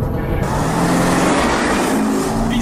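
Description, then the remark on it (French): A car engine revs loudly and steadily for a couple of seconds, its throaty roar rising slightly in pitch, with no voices. “On est en voiture, on parle de business, d'immobilier, d'entrepreneuriat, de management, de mindset.”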